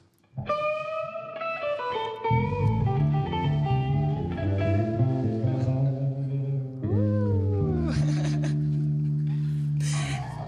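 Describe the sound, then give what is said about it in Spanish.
The string section of a band plays on stage at a concert: sustained, layered chords with melodic lines moving above, a sliding pitch bend partway through, holding a steady, full volume throughout with no voices. “Y también así suenan las cuerdas.”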